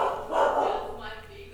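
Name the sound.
dogs barking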